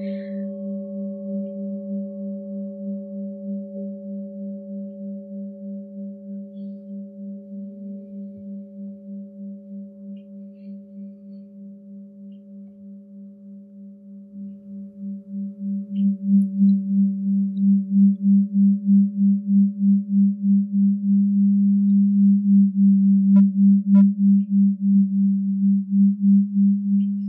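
A singing bowl rings with a steady low tone and faint higher overtones, sustained throughout; about halfway in it swells louder and takes on a rapid wavering pulse. No one speaks.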